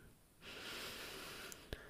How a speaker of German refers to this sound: Nun kommen wir langsam zurück. Wir konzentrieren uns wieder auf unsere Atmung. Wir atmen ein bis zweimal tief ein